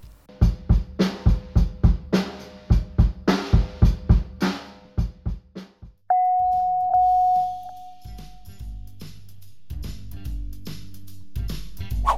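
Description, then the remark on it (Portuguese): A drum kit plays a steady, punchy beat of evenly spaced hits for about six seconds, then cuts to a held electronic tone and some low, sustained notes. “Parabéns! Essa foi a bateria.”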